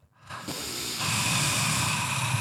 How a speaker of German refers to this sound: Das war ausatmen.